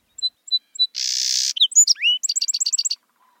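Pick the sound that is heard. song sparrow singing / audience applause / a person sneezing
song sparrow singing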